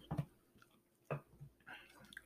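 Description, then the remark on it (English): Crunching of someone biting and chewing crispy pizza crust, two sharp crunches about a second apart followed by softer mouth sounds, no talking. “It's a good crunch.”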